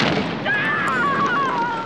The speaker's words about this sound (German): Die Frage bleibt unbeantwortet, da in diesem Moment im Fernseher eine Bombe explodiert, die Trümmer über die Mattscheibe fliegen lässt.